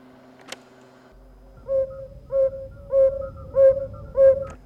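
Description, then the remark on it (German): A yellow-bellied toad (Bombina variegata) calls in a steady series of five soft, mellow, hooting notes, evenly spaced about two-thirds of a second apart, each short and slightly fluty, over a low background hum. “Gelbbauchunke Bombina variegata.”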